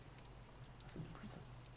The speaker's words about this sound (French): ah, bah dis donc, le temps breton est avec nous. Ah, c'est clair. pour bien commencer. Un enregistrement sous la pluie pour un épisode sur la Bretagne.